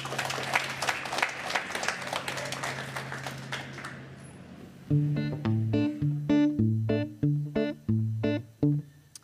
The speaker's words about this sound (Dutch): Mag ik een applaus voor Boban Braspenning?